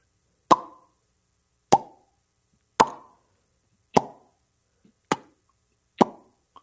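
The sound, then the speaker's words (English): Six sharp mouth pops from puckered lips, evenly spaced about a second apart, each a crisp plop with a short resonant tail, with no talking in between. “So here's the thing I usually go like, like, like pucker my lips.”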